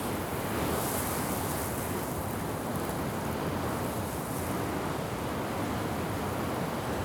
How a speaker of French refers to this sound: je vais vous faire profiter un peu de ce vent saharien qui est assez consistant